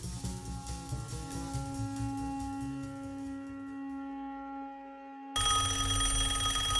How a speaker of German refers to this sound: Kurz vor zwölf weckte mich das Telefon.